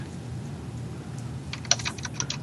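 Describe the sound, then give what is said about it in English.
A low background hum, then partway through a quick, uneven burst of computer keyboard typing with crisp clicks, as someone types a message in an IRC chat channel; no voices. “I'm making a joke in the IRC channel about it's not even a joke.”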